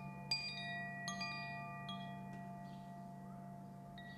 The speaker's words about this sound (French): Le son du chime vous aide à revenir au présent, à vous concentrer sur votre respiration et sur les sensations de votre corps.